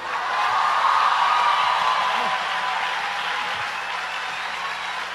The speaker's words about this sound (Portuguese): Se é para aplaudir, aplaude tudo junto.